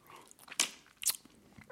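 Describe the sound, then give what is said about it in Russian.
Two sharp, crisp crunches of someone biting into a cola-flavoured crunchy snack, about half a second apart, followed by softer chewing noises. No one speaks. “Я вот с колой, кстати, съел.”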